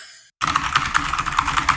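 Rapid clicking of a mechanical keyboard being typed on, a steady stream of sharp keystrokes following a brief moment of silence.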